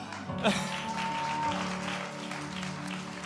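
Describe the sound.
A crowd applauds steadily at a church service, a dense wash of clapping that fills the whole stretch at moderate volume, with a brief voice or whistle-like tone near the start.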